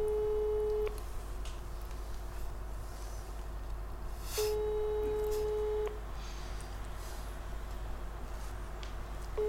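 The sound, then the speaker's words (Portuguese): An electronic mobile phone tone sounds over a call in steady pulses of a second or so, separated by longer silent gaps, over a constant low hum, with no one speaking. “Neste momento ouço só mastigar e o telemóvel.”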